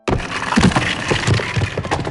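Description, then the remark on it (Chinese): Dense, continuous scraping and crunching of stone being dug through and broken apart until a hole opens, with irregular heavy knocks and gritty rubble rattling throughout. No one speaks. “突然，他听见挖石头的声音，没多久就露出一个洞。”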